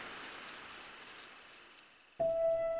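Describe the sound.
Steady cricket chirring fills the background, then a loud, sustained whistled note breaks in abruptly near the end: a voice imitating a bird call.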